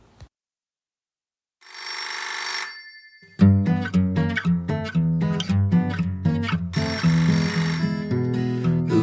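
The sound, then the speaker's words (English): A telephone bell rings in a short, loud burst, then a bouncy, rhythmic music track kicks in, with another ringing burst layered over the music near the end. No one speaks. “Who's on the phone?”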